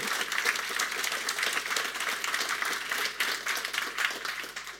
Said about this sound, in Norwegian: Ja, jeg vil gjerne klappe for det.